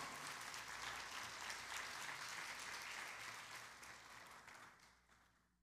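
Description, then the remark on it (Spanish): An audience at a Spanish-language church service claps their hands loudly for the Lord in a dense, sustained burst of applause that holds steady for several seconds, then gradually fades away toward the end. “Y usted le da palmas fuerte al Señor.”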